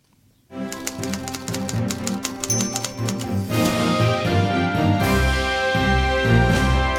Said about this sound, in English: sometimes wonder really if, if younger uh, listeners if they recognize the sound that's in the jingle of the typing uh, machine.